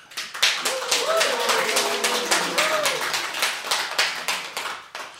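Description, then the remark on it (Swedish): A small live studio audience at Götgatsbacken in Stockholm, south of Slussen, calls out and cheers together when asked for a voice sample, with scattered hand claps and taps running steadily through the whole stretch at lively volume. “Får vi höra lite röstprov från er som är här?”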